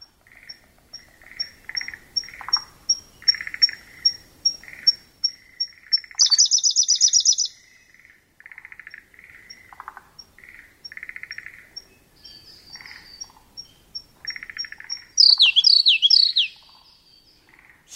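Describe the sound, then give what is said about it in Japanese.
A Siberian blue robin sings at Hirafushi-numa pond, Fukushima Prefecture, Japan: a run of soft, even high ticks builds into a loud, rapid rattling trill, repeated twice, over a steady chorus of other birds calling. “平伏沼（福島県）のコルリをお届けします。”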